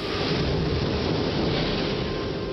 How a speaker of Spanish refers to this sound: Una fuerte tormenta sacudió la casa y el jardín. Fue una noche terrible.